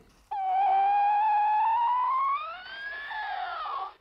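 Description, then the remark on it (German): A single long whistle, the normal call of a dolphin mother, recorded in Florida waters with a hydrophone attached directly to the dolphin; loud and clear in the water, gliding slowly upward in pitch and wavering slightly near the end, with no voices. “Das war jetzt der normale Ruf und jetzt kommt die Babysprache.”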